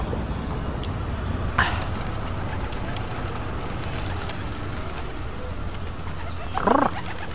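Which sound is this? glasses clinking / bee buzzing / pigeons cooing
pigeons cooing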